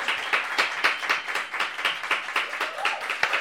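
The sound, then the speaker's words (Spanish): A crowd applauds steadily for a group from California who were asked to stand up, many hands clapping in a dense, crackling patter with sharp individual claps standing out, sustained at a fairly even level throughout with no voices. “Un aplauso, háganlo sentir.”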